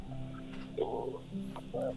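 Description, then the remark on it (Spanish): A young child's voice, asked to make a dog's noise, mimics a dog's bark with two short, yappy woofs over a faint steady background hum. “¿puedes hacer el ruido de un perro?”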